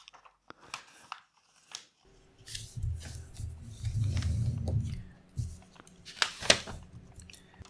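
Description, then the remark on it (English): Crisp crinkling and rustling of a sheet of paper being unfolded and folded the other way along its creases, with sharp creasing snaps and a sustained scraping swipe in the middle, no voices. “So you unfold what you've done and you fold on the other way.”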